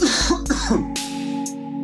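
A man coughs, three harsh, rasping bursts in quick succession, each with a throaty, voiced tail, and no talking around them.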